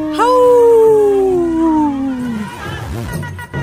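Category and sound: animal, wolf howling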